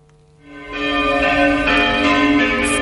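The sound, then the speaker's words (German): Church bells ring out from church towers during the coronavirus crisis, a rich, sustained peal swelling in after a quiet start and staying loud and resonant, with overlapping tones humming together and no voices. “Die Glocken in den Kirchentürmen, die läuten zwar noch, Gottesdienst gibt es in der Corona-Krise aber seit Wochen keine mehr.”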